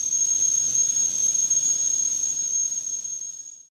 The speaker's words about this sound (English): Just enjoy your tea, but take a sec and enjoy the kettle as well.